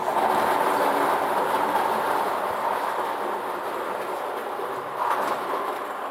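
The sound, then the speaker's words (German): A lottery drawing machine mixes its 49 numbered balls during a lotto draw, a steady, dense rattling and rumbling that stays loud throughout, with a brief surge near the end and no voices. “Gut, ich mische mal, ne?”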